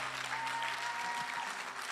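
An audience applauds steadily, a dense wash of many hands clapping at an even level throughout, with no voices standing out above it.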